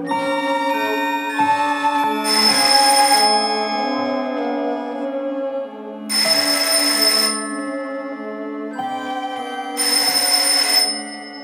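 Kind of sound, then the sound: household object, telephone ringing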